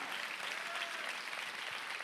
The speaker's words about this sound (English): Clap your hands if you believe. Ръкопляскай, ако вярваш в това.